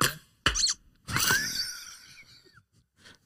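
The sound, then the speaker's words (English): A squeaky toy squeaks in a few bursts: two short squeaks, then a longer wheezing squeal that bends upward in pitch, and a faint final squeak. Fairly loud, with no talking. “I just like the squeaky toy noise there.”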